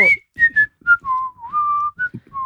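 Someone whistles a short, wandering tune of clear tones, sliding from higher notes down to a lower sustained pitch, in several separate phrases with brief pauses between them.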